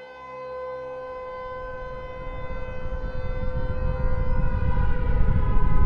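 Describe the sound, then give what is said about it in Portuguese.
Air raid sirens sound all over the world, wailing in a sustained, steady, loud drone, while a rumbling noise beneath them builds steadily over several seconds. No one speaks. “Então, no dia 23 de outubro de 2077, as sirenes tocaram por todo o mundo.”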